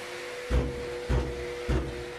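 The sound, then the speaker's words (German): An asbestos dust extraction unit hums steadily with a constant tonal drone, punctuated by three loud, regular knocks roughly every half second as it shakes dust with asbestos fibres into a special, tightly sealed bag. No voices are present. “Was da so laut klopft, sind nicht die Arbeiter, sondern die Absaugung.”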